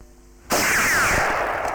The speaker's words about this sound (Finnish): Ammui tahallani ohi, kun tunnistin sinut. Pitäähän sitä vähän harjoitella.